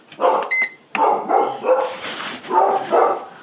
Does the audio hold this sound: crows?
no